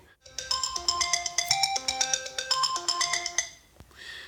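A phone ringtone for an incoming call plays a bright, rapid electronic melody of stacked tones for a few seconds, fairly loud, then cuts off abruptly with no talking.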